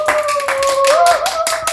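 A small group applauds as a guest is introduced, with quick, uneven hand claps running steadily for under two seconds at a fairly loud level, and a thin sustained tone sounding faintly beneath the clapping.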